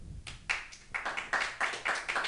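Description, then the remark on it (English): An audience claps for a couple of seconds to answer whether their first time getting drunk was good, a steady patter of sharp, bright hand claps in a loose, even rhythm at moderate loudness, with no one talking. “Just by a round of applause.”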